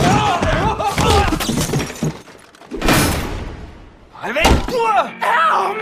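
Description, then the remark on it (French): A person tumbles down stairs in a few heavy crashing thuds and bangs, loud, while voices shout and cry out around the impacts. “T'es tombé dans les escaliers après le bal et t'es resté 4 ans dans le coma”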